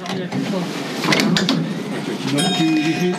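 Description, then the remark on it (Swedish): A small driverless minibus in Paris, running at 7 km per hour, pulls to a halt on the left bank and its doors slide open with a hissing, mechanical whoosh, followed by a steady electronic tone, with murmuring voices and outdoor bustle around it. “Efter någon minut kommer minibussen fram på den vänstra stranden. Den stannar och öppnar dörrarna.”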